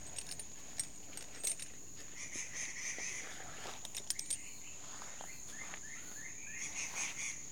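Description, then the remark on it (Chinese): Insects drone steadily in a forest, high-pitched throughout, with brief chirps, bird calls and scattered clicks rising over it at moderate volume, and wind blowing through the treetops. No one speaks. “然后现在呢，你可以听到的声音，除了虫鸣鸟叫之外，还有风吹过树梢的声音。”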